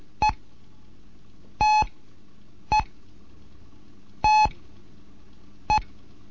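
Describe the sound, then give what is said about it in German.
Morse code tones alternate the single long dash of T with the single short dot of E: five steady mid-pitched beeps, short, long, short, long, short, evenly spaced with no voices. “Bevor es jetzt aber losgeht mit den neuen Zeichen, möchte ich äh, das T und das E noch einmal gegenüberstellen. Das T das E.”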